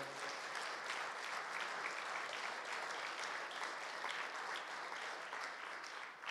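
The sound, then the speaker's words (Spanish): A church audience claps loudly and steadily for the Lord, a dense wash of many hands going on for several seconds without pause, with no one speaking over it. “Dárselo fuerte al Señor.”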